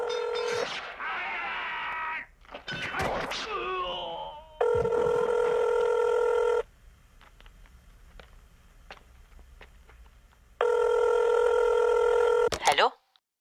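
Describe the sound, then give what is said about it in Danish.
A telephone rings twice on an outgoing call made from a basement in Tehran, Iran, to a home in West Jutland, Denmark; each steady tone lasts about two seconds with a long quiet pause between, clear after a few brief bursts of sound. “Derfra ringer han hjem til min mor på Vestjylland.”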